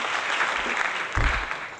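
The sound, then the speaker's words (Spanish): A short burst of recorded applause sound effect played on the radio show Política Nacional, a steady dense patter of clapping with a brief low thump partway through, moderately loud and with no one speaking over it. “Gracias, gracias por sus aplausos que pusimos.”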